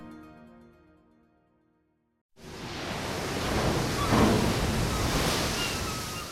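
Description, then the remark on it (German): Waves break against a ship's bow off Spitsbergen as the ship sets course for the Arctic Ocean, a loud, steady wash of rushing water and spray, following a brief tonal musical tail that fades into silence. No one speaks. “Wellen brechen sich am Bug.”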